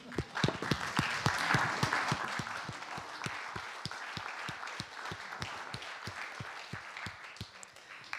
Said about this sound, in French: Sur ce, on vous applaudit. pour ce point.